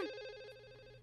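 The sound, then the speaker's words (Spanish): A phone ringtone for an incoming call sounds alone for a second, a steady electronic tone with bright stacked harmonics and a slight pulsing warble, holding at moderate loudness without any talking. “Ahí está la llamada, listo.”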